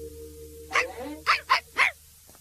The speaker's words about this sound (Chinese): 一只小狗。对。是一只很可爱的小狗。克拉贝尔，你的小狗叫什么名字？ 它的名字叫贝拉。